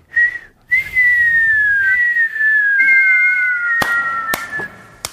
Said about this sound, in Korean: 셋이 같이 한번 연발로 여러 개 터지는 그러니까 그러니까 이게 이저 교차로 해야 돼요. 휘파람 소리 안 나. 한번 해보세요.